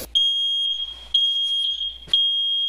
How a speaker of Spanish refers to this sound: Ya con la nueva batería puesta puede poner el detector de humo una vez más en el techo y oprimir este botón 3 segundos.